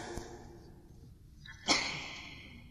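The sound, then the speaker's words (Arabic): A single sneeze bursts out after a short sharp intake of breath, then trails off into quiet. It is fairly soft, with no talking around it. “رحمك الله”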